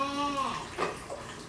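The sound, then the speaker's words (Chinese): Running water rinsing a chair clean splashes over its hard surface in a steady, hissing flow, with brief gurgling bursts and a faint voice-like tone early on. “把这冲干净，这个椅子冲干净”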